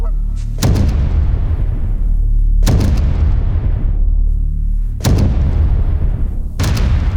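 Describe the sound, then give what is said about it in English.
A Benelli Super Black Eagle 3 shotgun fires loud blasts one after another, about five sharp booms, some in quick pairs, each trailing off into a long rumbling decay. No one speaks. “When the entire experience relies on the moment that trigger is pulled, your shotgun better be nothing less than perfect.”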